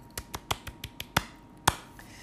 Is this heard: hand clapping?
yes